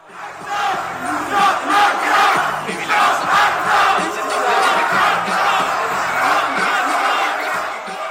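A large crowd of protesters at a demonstration against ACTA in Cologne chants and shouts together in a loud, sustained roar, voices rising and falling in rhythmic waves over about eight seconds.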